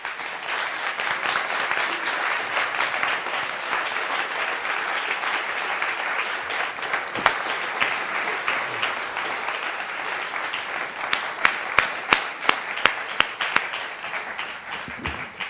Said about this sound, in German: Applaus